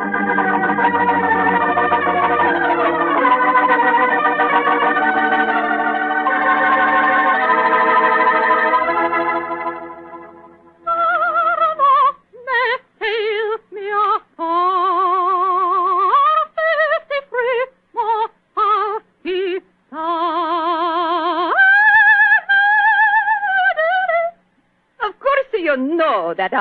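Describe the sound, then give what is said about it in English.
Sustained, muffled instrumental chords give way to a soprano singing an aria from Giuseppe Verdi's opera Rigoletto in bright, high phrases with wide vibrato and short breaths, sounding thin and band-limited like an old recording. “that was from a Rigoletto, you silly man.”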